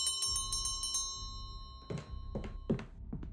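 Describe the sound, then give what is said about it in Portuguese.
A doorbell at a hotel door rings in a quick, rattling burst for about a second, its metallic tone lingering, followed by a few dull thuds. “Vocês ouvem a, a campanha tocar. Na porta? É, na porta.”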